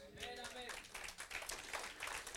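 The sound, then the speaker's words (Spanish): An audience breaks into steady, dense applause for Jesus, many hands clapping together, with a brief raised voice calling out at the very start. “¿Cuánto le da un aplauso a Jesús?”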